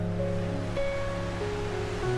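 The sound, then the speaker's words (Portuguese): A steady, unbroken wash of ocean surf fills the scene at an even level, with faint sustained musical tones drifting underneath. No voices are heard. “Olhe para esse oceano aqui, ó. Imenso.”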